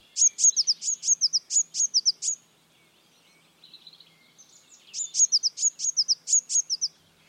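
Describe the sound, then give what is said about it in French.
Blue tit calls: two quick bursts of thin, high-pitched notes, each rattling off around eight chirps, with a few softer, lower twitters in the pause between them. No voices. “La mésange bleue émet un nullement des petits cris fins signalant sa présence dans les arbres.”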